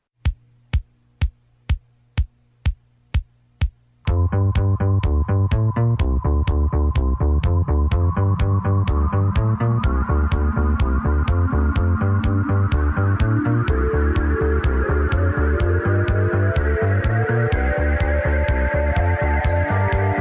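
An instrumental theme for the Midnight Express opens with a run of sharp, evenly spaced percussive hits, then bursts into a loud, dense synth-and-band arrangement driven by a steady pulsing beat and sustained chords.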